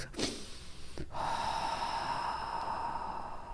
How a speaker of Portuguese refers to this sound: Respira, meu.